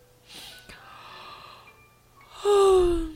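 A yawn: a long breathy inhale, then a loud voiced sigh at the end that slides downward in pitch and trails off.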